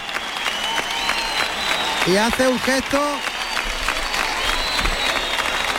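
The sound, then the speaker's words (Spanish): A bullring crowd bursts into a sustained ovation for bullfighter Morante de la Puebla as he comes out to salute with open arms, dense applause and cheering filling the whole clip, with a few shrill whistles from some spectators rising above the roar and a man talking over it. “Abre los brazos, recibe la ovación del público, es unánime.”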